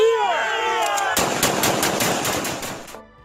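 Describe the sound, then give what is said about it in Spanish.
Paramilitaries shout and cheer loudly in celebration in the plaza of Monimbó in 2018 for about a second, then a long burst of rapid automatic gunfire erupts, crackling continuously for nearly two seconds before cutting off. “Y estos eran los gritos de celebración de los paramilitares en la plaza de Monimbó, tras masacrar a aquellos muchachos rebeldes que juraban con más dignidad y sueños que con fuerzas defender sus barricadas.”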